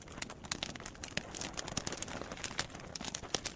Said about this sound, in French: Papineau a fait une belle flambée. Le feu crépite.